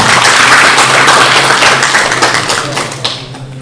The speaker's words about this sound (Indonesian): Tepuk tangannya.